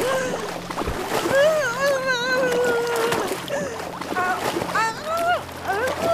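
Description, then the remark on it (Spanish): Water splashes and sloshes in a washbasin as a woman plunges her slave's head into it, under strained, wavering cries and gurgling vocal sounds that rise and fall throughout. “tomando y introduciendo la cabeza de su esclava en un lavatorio con agua.”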